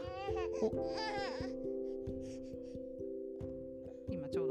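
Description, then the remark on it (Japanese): A baby fusses with a few short, whiny "uu" vocal bursts, mostly in the first half, over a steady low mechanical hum that continues throughout. “聞こえたかな、まあ、そこんな感じでですねあのなんかうううう言って。”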